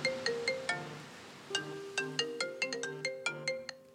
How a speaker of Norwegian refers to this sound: Om en gang jeg er tilbake på NRK, så ringer telefonen min.